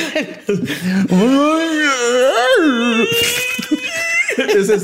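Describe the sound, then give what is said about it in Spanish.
A voice imitates the harsh, guttural sounds of a creature called the imbunche, letting out loud, drawn-out wavering moans and groans with a raspier burst midway, all wordless. “de hecho, emitiendo mugidos, gritos de animales o sonidos guturales y ásperos.”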